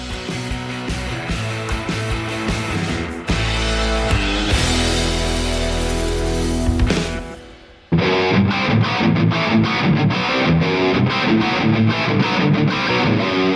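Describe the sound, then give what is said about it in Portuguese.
A loud, distorted rock jingle with heavy driving guitars and dense full-band sound, briefly dropping out near the middle before kicking back in with a punchier, rhythmic section. No one speaks. “vamos pro papo, vem vinheta e rola o confraria”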